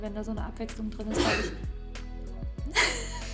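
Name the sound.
sneeze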